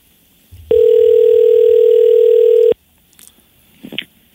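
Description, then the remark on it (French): A steady, loud telephone tone holds for about two seconds while a call is being placed, then cuts off abruptly, followed by faint rustling and a brief soft noise near the end. “on vous rappelle qu'on fait du direct, alors on va appeler une personne. Et en principe, on met le bon numéro de téléphone associé au gagnant ou à la gagnante.”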